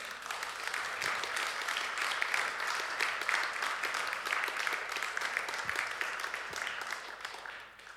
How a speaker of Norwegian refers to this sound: Jeg syns gjerne vi kunne gitt en klapp til sangerne og musikeren i dag.